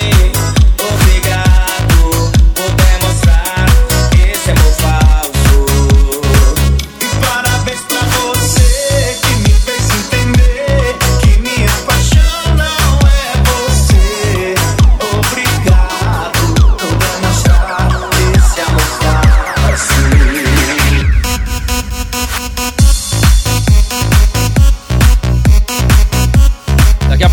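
A loud, full-band music track plays continuously on a radio show with a steady driving beat, bass, and bright melodic layers, with no talking over it.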